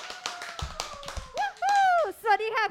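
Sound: applause welcoming a guest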